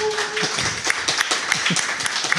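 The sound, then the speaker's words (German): A live audience applauds a beer being brought in, dense overlapping claps forming a steady wash of noise, with a brief whistle-like tone at the start and a faint voice or two mixed in. “Das ein Applaus Träumchen. fürs Bier.”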